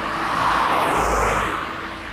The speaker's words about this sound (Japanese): フィールドレコーディングね。まあでもここの道ちょっと車がガンガン入ってるのはご容赦くださいですね。